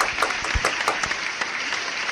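An audience applauding steadily, a dense wash of many hands clapping at an even loudness with a few sharper individual claps standing out through the short burst.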